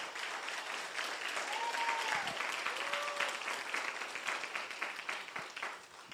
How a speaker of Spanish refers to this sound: Oh my goodness. Eso merece un mejor aplauso al Señor.